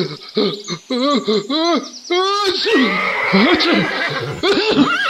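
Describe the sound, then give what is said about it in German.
A horse whinnies loudly as it bolts and runs off, a run of quick, wavering high-pitched neighs, then a rougher, noisier stretch with further shrill whinnies toward the end. “Verdammt, das Pferd geht durch! Es rennt davon!”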